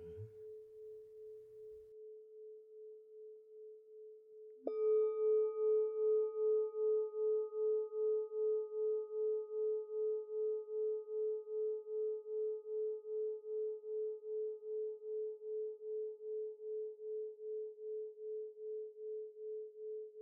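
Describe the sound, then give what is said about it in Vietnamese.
A meditation bell rings alone in a quiet space: a steady humming tone, then a single clear strike that blooms into shimmering overtones and sustains with a slow, gentle pulsing as it fades. “tôi hướng sự chú ý vào đôi bàn chân hình dung âm thanh của tiếng chuông massage cho đôi chân đôi chân được thư giãn thả lỏng”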